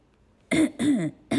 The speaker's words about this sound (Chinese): 这时候，小玫瑰又咳嗽了，